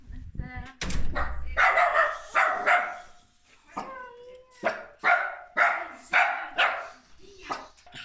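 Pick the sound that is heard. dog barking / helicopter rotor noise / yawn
dog barking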